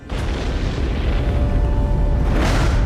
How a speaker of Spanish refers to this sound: la Tierra, hace 3.500 millones de años. Un infierno de fuego y lava que sufre constantes impactos de meteoritos.